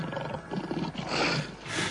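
A lion roars loudly and close, a rough, growling bellow that swells over about two seconds with a second surge near the end, with no voices.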